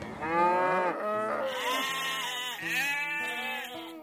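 Many farm animals call over one another without pause, a dense chorus of overlapping moos and bleats from a herd close by, loud and steady with no talking.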